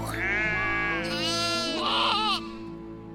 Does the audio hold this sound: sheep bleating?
yes